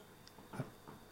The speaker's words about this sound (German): Ja, natürlich, ich furze hier nicht in einem durch, das ist der Lederstuhl.